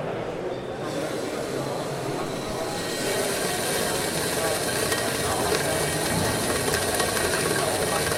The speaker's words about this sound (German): Es kocht quasi um den Zauberstab rum fängt das Wasser an zu kochen. Faszinierend.